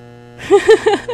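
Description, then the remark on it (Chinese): An electric fan hums steadily and faintly underneath, a constant droning tone, while four short voiced syllables rise and fall over it in the second half. “杂音我不知道怎么办呢？可能是我电风扇在旁边吹吧。”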